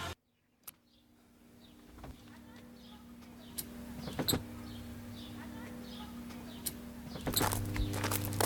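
A motorized garage door grinds open with a steady low mechanical hum, punctuated by sharp clunks and rattles, and a brief louder surge near the end.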